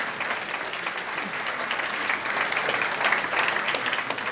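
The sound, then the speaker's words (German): An audience claps steadily to welcome guests from Ukraine, a dense wash of many hands that holds a fairly even loudness and swells slightly toward the end, with no one speaking over it. “Welcome our guests from the Ukraine. Applaus”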